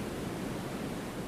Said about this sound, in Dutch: Witte ruis is een constant achtergrondgeluid dat afleiding blokkeert. Het is het geluid van regen, kolkende golven en kletterende waterval.